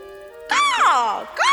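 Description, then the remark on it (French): A voice imitates a carrion crow's (corneille) caw: two loud, high-pitched, strained calls, the first longer and sliding downward, the second shorter and arching, separated by a brief pause. “La corneille, elle, fait des croissements forts et aigus comme ça.”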